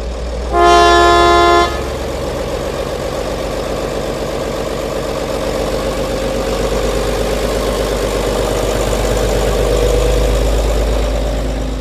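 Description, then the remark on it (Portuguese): A train horn gives one steady, bright blast of about a second as train 512 departs Cernada toward Oliveira das Meias at about 2:50, then a low engine rumble builds and churns on as the train pulls away. No one speaks. “Cerca das 2h50, o comboio arranca novamente.”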